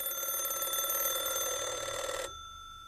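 An alarm clock rings continuously with a bright, rapid metallic trill for about two seconds, then stops abruptly, leaving only a faint high residual tone.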